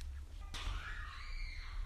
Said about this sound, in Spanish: Dios mío, Dios mío, los gritos.